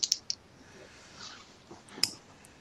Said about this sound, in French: J'ai entendu des dés là se préparer, c'est pour ça.